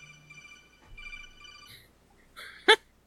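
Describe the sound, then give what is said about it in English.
A phone text alert tone using the Metal Gear Solid alert effect plays a short electronic chime, with steady tonal notes ending in a sharp, bright burst near the end, with no talking. “that's my ringtone. That's my text okay. Tone.”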